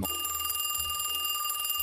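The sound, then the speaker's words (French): A telephone rings with a steady, bright electronic trill, sustained, with no voices present. “La sonnerie du téléphone l'interrompt.”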